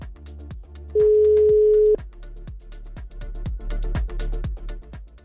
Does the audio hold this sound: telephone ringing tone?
yes